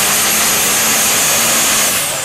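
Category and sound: vehicle, tractor engine running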